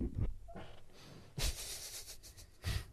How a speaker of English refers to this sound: that was the most farty chair noise. oh man.